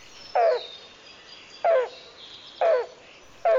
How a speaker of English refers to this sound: The spongy moth caterpillar outbreak means that we may get a chance to see two usually shy and relatively hard to see birds the black billed cuckoo and the yellow billed cuckoo.